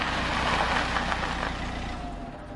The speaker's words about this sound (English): Now I had my boys in the car, and we were on our way to the north, when suddenly the car stopped.